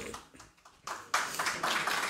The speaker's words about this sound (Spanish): Sacó aplauso,